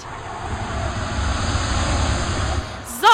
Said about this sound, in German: ich muss jetzt ein bisschen lauter sprechen, denn die Mittagspause hat gerade begonnen. Und wie man hört im Hintergrund, nämlich alle verteilen sich hier auf den Tischen und wollen nämlich was Leckeres essen.